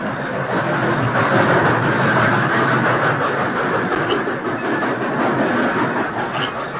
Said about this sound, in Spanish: Ese es un tren de carga. Yo sé que esos trenes solo se detienen un momento en la estación.